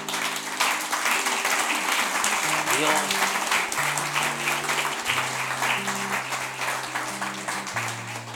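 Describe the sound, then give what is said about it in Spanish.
A crowd applauds for God during a Christian sermon, steadily and loudly for several seconds, a dense wash of clapping that fades slightly at the end, with sustained keyboard chords playing underneath and faint voices mixed in. “Denle un aplauso.”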